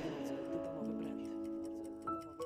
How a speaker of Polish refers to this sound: Tik, tak, tik, tak. Zegar znów zaczął odliczać,